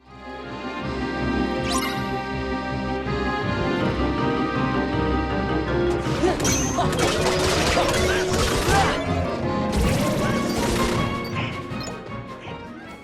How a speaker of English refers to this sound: That is, of course, the Halloween Town theme, but which Kingdom Hearts game is it from? Is it one? Is it two?